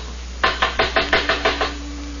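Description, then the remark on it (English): The first mate knocks seven quick, evenly spaced times on the wooden door of a ship's cabin, sharp raps in a steady rhythm over a faint low hum, with no voices. “I remember sitting here very worried when Driscoll, my first mate, knocked on the door.”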